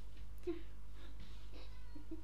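A cat meows softly several times in short, high calls spread across the moment, fairly quiet against a steady low hum.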